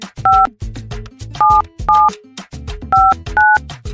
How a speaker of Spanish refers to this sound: Estoy marcando ahora mismo, déjame abrir aquí la línea para que se escuche. Estoy marcando en este momento en vivo.